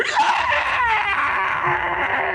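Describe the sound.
A voice imitates the howl of a creature impaled in the chest with a spear, a loud, strained, scream-like wail held for a couple of seconds, raw, with no speech around it.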